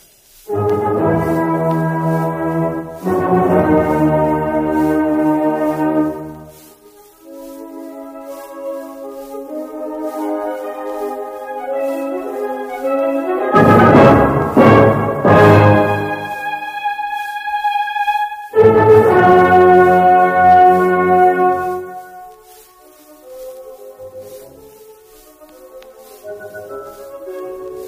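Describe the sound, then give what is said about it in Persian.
A full orchestra plays the opening of Beethoven's Fifth Symphony: loud, forceful chords in short emphatic bursts, each ending in a held note, then quieter sustained strings before another powerful tutti swell; no voices. “در جواب دوست با وفای شیندلر که مفهوم آغاز سمفونی پنجم را از او میپرسد میگوید این صدای در زدن سرنوشت است”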